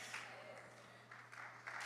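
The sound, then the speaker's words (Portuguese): A short burst of scattered applause, fairly faint, swelling slightly in waves over a steady low electrical hum, with no clear voices. “Quem na dúvida, estejam palmas, irmão.”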